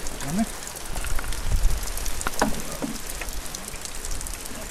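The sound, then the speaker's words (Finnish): Steady autumn rain pattering on a hard surface, with a dense hiss broken by scattered sharper drips, and a faint voice or two briefly murmuring underneath. “Sataa vettä.”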